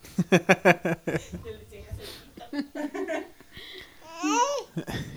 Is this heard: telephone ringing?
no